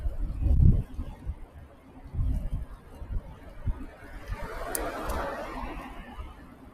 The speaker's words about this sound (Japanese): 今、創生川通りというところを車いっぱいと走ってるので、かなり車の音がうるさいかなと思いますが。